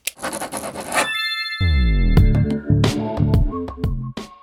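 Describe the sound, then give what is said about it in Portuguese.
A pen scratches quickly across paper for about a second in short rhythmic strokes, fairly loud, then gives way to a music sting with sustained tones and sharp hits. “Então se prepare para suas anotações, porque é hora de se aprofundar no assunto.”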